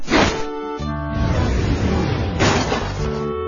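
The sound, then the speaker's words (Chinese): A heavy block of snow, 40 centimetres on each side, crashes down with a loud, crunching thud, followed by a second burst of breaking impact a couple of seconds later, over a steady musical backing. “这是一块边长四十厘米的雪块，来看看它的威力。”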